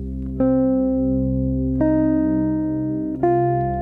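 Three sustained, bright instrumental notes struck one after another at a steady pace, including the blue note added to the minor pentatonic scale (augmented fourth or diminished fifth, F-sharp or G-flat in C), each ringing with rich overtones over a low held tone, no voices present.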